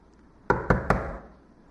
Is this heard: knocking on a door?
yes